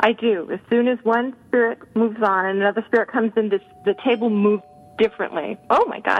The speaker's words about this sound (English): Is that the ding dong from the dead? That's me. Yep, that's the doorbell, which means pizza from the dead is here.